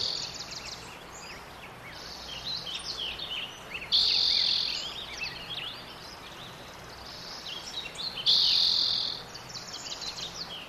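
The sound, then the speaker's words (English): A dense outdoor spring dawn chorus of overlapping bird chirps and insect trills, recorded at Sugarloaf in 2004, steady throughout, with two louder high buzzing swells rising briefly; no voices. “You can see how climate change is affecting the bird populations. You'll hear a nice, robust piece in 2004.”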